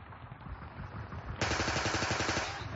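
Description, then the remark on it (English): Rapid bursts of gunfire rattle continuously in a village in Burma at night, a dense, fast stream of shots like a machine gun that grows louder and sharper halfway through, with no voices. “Guns. Yes, there were guns,”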